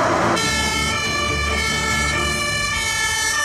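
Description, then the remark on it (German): A fire engine siren as the Heringhausen and Stormbruch fire brigades in the municipality of Diemelsee are alerted on 25 July to a burning tree stump, blaring loudly and continuously, a steady, bright multi-toned wail with a low engine rumble underneath and no voices. “Es war kurz nach zwölf, als am 25. Juli die Feuerwehren Heringhausen und Stormbruch alarmiert wurden.”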